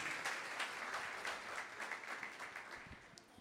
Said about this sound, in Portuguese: Dá uma salva de palmas, Senhor Jesus. Glória a Deus.